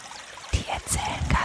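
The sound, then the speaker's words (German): Brook water trickles and splashes in a steady babbling flow with irregular gurgles and brief bright spatters, heard on its own without any voices. “Habt ihr schon mal einem Bach zugehört?”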